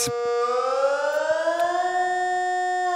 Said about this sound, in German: Zugeben, es ist ein gefürchiger Ton, wenn jeweils die Sirenen heulen. Für Menschen, die aus Krisengebiet hierher geflüchtet sind, löst das spezielle Gefühl aus.